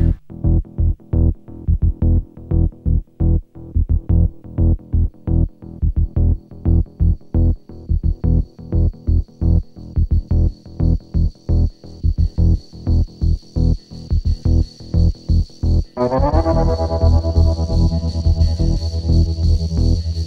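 An exclusive B-side electronic song plays loudly on its own, driven by a fast, steady pulsing beat with effects-laden synth tones, then shifts near the end into a dense, sustained wash of sound.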